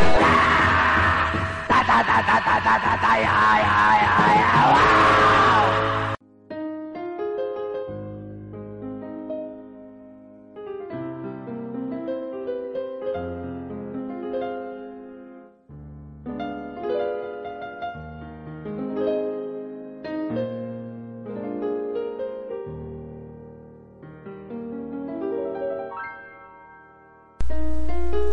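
A cover of a bolero song plays, opening with a few seconds of dense, noisy wash before giving way to a clear, steady melodic line with sustained tones, moderately loud and with no talking.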